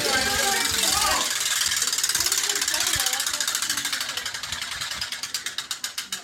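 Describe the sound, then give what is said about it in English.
A prize wheel spins with a rapid ratchet clicking that gradually slows, the clicks spacing out toward the end, over a busy background of crowd noise and voices. “Um, or you want to spin the wheel?”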